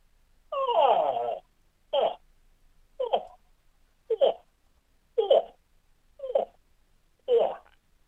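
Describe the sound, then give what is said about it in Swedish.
A human voice, a fourth-generation moose hunter's, imitates a cow moose luring a bull: one long wavering moan followed by six short, nasal, rising grunts spaced about a second apart, fairly loud, with no speech. “som gav prov på hur en älgko lockar till sig tjuren.”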